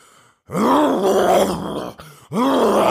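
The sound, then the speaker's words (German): A person imitates a lion's roar with two long, throaty, rasping growls, loud and strained, the second starting after a brief pause. No words are spoken. “Das ist ein Pferd. Nein? Löwe. Ja.”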